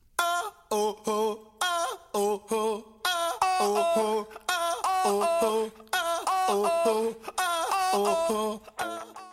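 A cover version by a UK band, sung in layered vocal harmony, starting with short choppy phrases and broken stops, then flowing into longer, fuller sustained chords, loud throughout.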